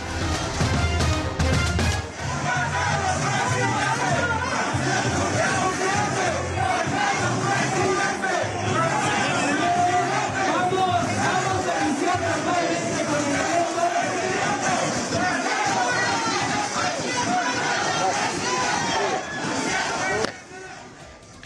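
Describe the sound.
A large crowd of residents of Acatlán, Hidalgo, cheers and shouts loudly and continuously for foreign minister Marcelo Ebrard at a Morena campaign rally, voices rising together in rhythmic chanting of "presidente", a dense roar of many people that holds steady before cutting off abruptly near the end.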